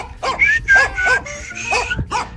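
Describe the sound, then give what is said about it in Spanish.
A dog barks rapidly and insistently, about six sharp yaps in quick succession, loud with no one talking. “Andaba por ahí en Chihuahua y iba caminando su perro dálmata, muy, muy fancy él acá.”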